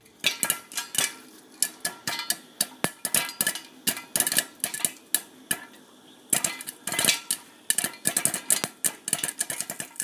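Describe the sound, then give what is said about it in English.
Popcorn pops rapidly inside a pot as a child pops it with dad and sister in Pittsburgh, Pennsylvania, dozens of sharp, irregular cracks tumbling over one another over a low steady hiss, fairly loud, with no one talking. “the sound you just heard was the sound of me popping popcorn with my dad”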